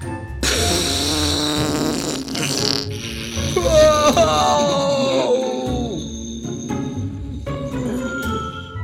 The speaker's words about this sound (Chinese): 小健跟他的狗狗一起被这个大象的屁股呢，整个吹走了，连雨伞都飞走了。原来刚刚大象屁股啊放了一个超大的屁之后呢